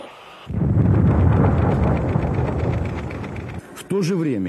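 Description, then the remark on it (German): A massive explosion of a new Russian vacuum bomb in a test, carried aboard a Tupolev 160, erupts into a deep, sustained rumbling roar that rolls on for about three seconds before cutting off, followed by a voice starting to speak. “Was folgt, ist eine gewaltige Explosion.”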